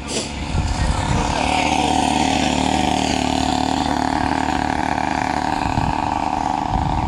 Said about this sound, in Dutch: Oh, er komen brommetjes voorbij. ik stop even met praten.